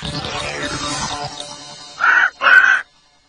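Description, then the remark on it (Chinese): A macaw squawks twice in quick succession, two loud, harsh, raspy calls after a stretch of low, rustling background noise, with a brief gap between them. “No，那是金刚鹦鹉。”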